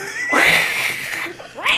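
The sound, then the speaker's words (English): A pet cat named Sprinkles meows loudly: one long, drawn-out wailing meow, then a brief pause and a second, shorter rising meow. “Oh no, my kitty Sprinkles is back!”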